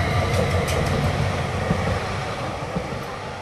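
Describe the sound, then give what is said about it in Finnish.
A train rolls past at the former Strömberg factory stop in Pitäjänmäki, Helsinki, Finland, a loud, steady low rumble of wheels on the rails with faint metallic rattling on top, and no voices. “Strömberin tehdas oli takavuosina niin merkityksellinen, että sille avattiin oma junaseisake vuonna 1949.”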